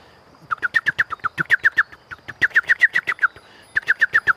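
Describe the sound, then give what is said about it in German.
Birds giving escalating alarm calls as a ground predator approaches: rapid runs of sharp, repeated chirps in three loud bursts with brief pauses between, no voices. “Und dann geht eine Alarmwelle ins Land.”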